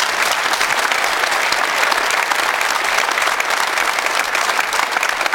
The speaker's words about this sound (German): Da wird manchmal, also bei manchem Publikum wird da applaudiert. Also einfach nur, ja, okay, funktioniert.